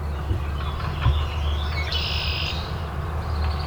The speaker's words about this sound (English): Okay, that Baltimore Oriole is definitely loud enough.